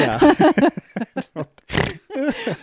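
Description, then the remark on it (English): A person laughs in quick, voiced bursts, then lets out a loud, noisy snort close to the microphone, followed by more breathy laughter. “Sorry to snort in the oh microphone.”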